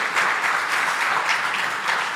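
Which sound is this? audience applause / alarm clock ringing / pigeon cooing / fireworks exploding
audience applause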